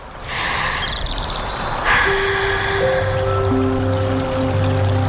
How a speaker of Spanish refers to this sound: Ese momento en que te descalzas metes un dedo en el arroyo